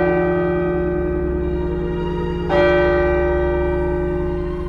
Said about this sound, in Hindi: दीवार पर लगी पुरानी घड़ी से डोंग डोंग